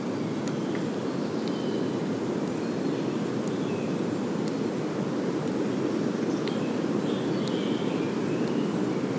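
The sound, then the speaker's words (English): Steady outdoor ambience inside an ancient woodland that has been there for thousands of years: a constant low, airy rumble like wind or a drone, with sparse faint bird chirps scattered high above it. No one speaks. “We're inside a woodland. It's an ancient woodland.”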